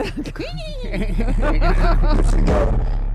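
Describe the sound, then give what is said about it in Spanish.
An eerie, synthetic soundscape created by an artificial intelligence after analyzing a painting: sinister, laugh-like voiced bursts rising and falling in a rhythmic cackle over a steady low drone, fairly loud. “el sonido, que una inteligencia artificial le ha puesto, a, o la música que ha creado, tras eh, analizar el Guernica de Picasso”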